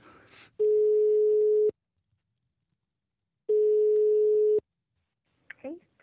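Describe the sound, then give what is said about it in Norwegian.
Two long, steady ringing tones on a phone call to the health clinic in Rosten, each about a second long, separated by a pause. Brief bits of voice come just before and after. “Ringte dem? Ja, ja det gjorde jeg. Uh, dere kan jo, ja, vi kan jo høre på hvordan det hørtes ut.”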